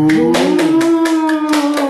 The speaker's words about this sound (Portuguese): Hum, minuto, segundo de palmas.